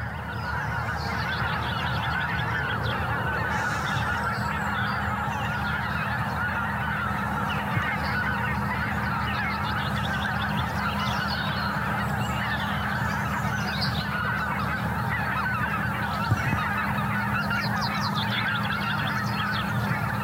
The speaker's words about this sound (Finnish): tuntia myöhemmin suurin piirtein sitten, kun me puhuttiin siitä, että hanhet lähti vähän yllättäen tästä, tästä pois, niin, niin sitten suunnilleen tuntia myöhemmin kuitenkin hanhet palasivat ja sillä kertaa sitten äänen kanssa.